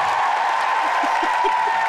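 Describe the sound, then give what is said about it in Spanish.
An applause sound effect: a steady wash of applause from a crowd, dense and even throughout, with faint cheering mixed in and no talking over it. “Le damos ese aplauso a toda la gente que son espontáneas y que a la misma vez planifican.”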